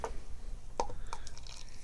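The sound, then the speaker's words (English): Bright pink fizzy raspberry lemonade is poured quietly from a bottle, forming a foamy head, with a few soft splashy drips and a faint crackling fizz of bubbles over a low background rumble. No one speaks. “And uh, a nice foamy head on pour. Um, very bubbly.”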